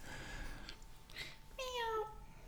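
A single drawn-out, meow-like eagle cry slides downward in pitch, clear over a low background rumble, preceded by a few faint, brief sounds.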